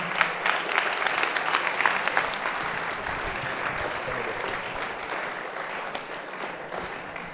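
Sustained audience applause, a dense crackle of many hands clapping steadily for several seconds, loud at first and easing slightly toward the end, with no speech over it.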